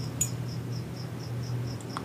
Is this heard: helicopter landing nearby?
no